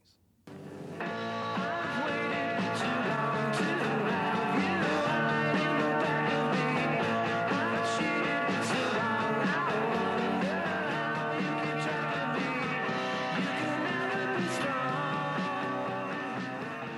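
A lo-fi garage indie rock song kicks in after a brief silence, with dense, steady guitar-driven instrumentation and drum hits playing loudly and continuously throughout.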